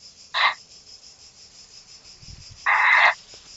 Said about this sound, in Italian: Io, io, io, sento dei grilli qua dove abito io